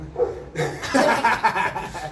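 A female dog barks several times in quick, uneven bursts, loud, filling about two seconds with sharp, yappy calls.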